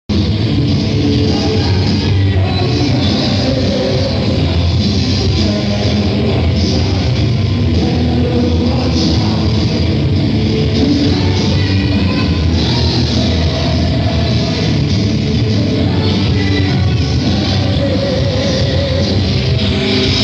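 A loud live rock band plays steadily for about twenty seconds, with dense, full-range guitars and drums, the final stretch of a song at a concert.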